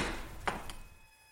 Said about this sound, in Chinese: 这我有点生气了，不得不再次披上衣服，拉开淋浴门，一边冲着卧室说道：“ 你怎么不开门啊？” 一边快速走过去，把大门打开。